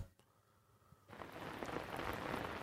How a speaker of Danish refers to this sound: Den her regnlyd, der kører i baggrunden, ja. den fortjener altså også lige en øh, lille forklaring.